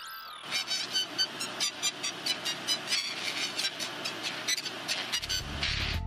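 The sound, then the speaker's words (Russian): Heavily distorted music, Paganini's La Campanella, plays from a tiny thin-film speaker stuck on the back of a hand and fed by two wires: a rapid run of repeated high notes, buzzy and harsh, with crackling noise around each tone. It plays steadily for several seconds with no voices. “Для демонстрации исследователи наклеили кусочек пленки на тыльную сторону ладони, подвели к ней два провода, включили сигнал и записали получившийся звук.”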